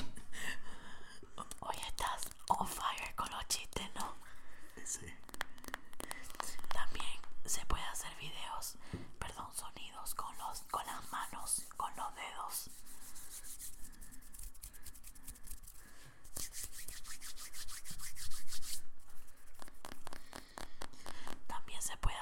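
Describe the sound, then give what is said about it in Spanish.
ASMR tapping on a phone: quick, crisp fingernail taps and light scratches in uneven bursts throughout, with soft whispering and rubbing sounds mixed in. “hacer tapping, que es lo que está haciendo yo con el teléfono.”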